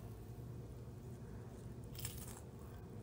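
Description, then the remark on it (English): A brief, crisp crunch of someone biting into a cracker, one short crackly burst partway through, set against a low steady background hum with no talking. “Yeah, we got the crunch of that cracker.”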